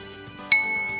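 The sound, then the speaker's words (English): A single bright clink of a snifter glass in a toast halfway through, its high ringing tone lingering and slowly fading over a quiet, steady background with faint tonal hum. “Cheers and take a sip of my Cigar Dave Teeny served in a snifter, not a martini glass”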